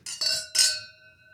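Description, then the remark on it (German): Glasses clink together three times in quick succession in a toast, bright ringing taps with the last one loudest, leaving a clear shimmering tone that fades away with no voices. “Moment, Moment zum Wohl, ja.”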